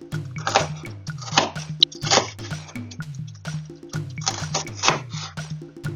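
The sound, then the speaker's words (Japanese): Crisp crunching chops of a kitchen knife cutting celery diagonally, repeating in a steady but uneven rhythm, with soft background music underneath and no talking. “で、皆さん、包丁の時って、猫の手って言うじゃないですか。あれできますか猫の手でやると逆に食材が安定しなくて、切るのが怖くてしょうがない。”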